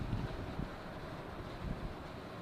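Heavy rain pours down outside, picked up by a microphone pointed outward, in a steady, dense hiss that fills the whole clip, loud and unbroken with only slight surges, and no one speaks.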